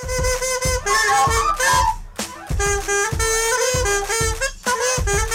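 A pop tune played on a recorder (blokfluit): bright, sustained melody notes over a steady thumping beat, loud throughout with one brief pause midway and no talking.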